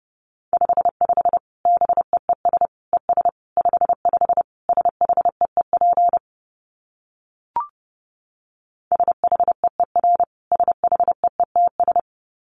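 Fast Morse code at 30 words per minute, a steady mid-pitched beep keyed in quick dots and dashes, with two runs split by a pause and a single click.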